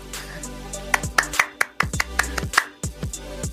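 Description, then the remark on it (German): One person claps hands about a dozen times in a quick, slightly uneven burst. The sharp, crisp slaps stand alone with no talking over them. “Ich habe gerade geklatscht.”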